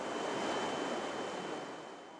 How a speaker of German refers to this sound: an der das Wasser aus der Fischzuchtanlage in den Fluss zurückfließt. Es rauscht durch einen etwa ein Meter breiten Kanal.